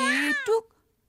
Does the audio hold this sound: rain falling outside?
no